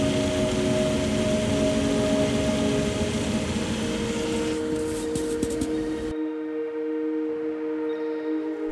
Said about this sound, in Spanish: El sonido de mi computadora la describo de la siguiente manera. Es un sonido que viene de los ventiladores de la PC, los cuales cumplen una función en específico. Este sonido siempre lo escucho por las mañanas y por las noches.